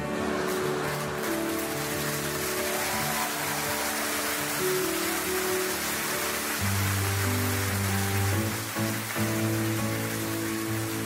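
A crowd claps steadily, a dense, continuous patter of applause that holds at an even loudness throughout, with sustained low musical tones running underneath.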